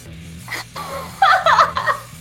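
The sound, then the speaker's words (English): A group of people gasps together in a short, breathy burst that swells and fades over about a second, with a low steady hum in the background. “I don't know why the crowd just gasped.”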